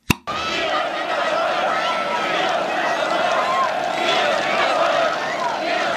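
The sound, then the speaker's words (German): A peaceful evening protest march of about 70,000 people through Leipzig's inner city, the crowd chanting "Wir sind das Volk" together, a dense roar of many voices that stays steady and loud throughout, with a sharp click right at the start. “Zum Glück haben einige Oppositionelle diesen Zug gefilmt und uns so ja ein bisschen von der Stimmung dieses Abends konserviert.”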